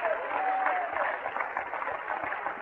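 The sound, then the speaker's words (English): A church audience at an evening service claps their hands for the Lord in a steady, dense wash of applause that holds at an even loudness throughout, with a thin whistle-like tone sliding briefly near the start. “Oh, let's give the Lord a good hand clap here tonight.”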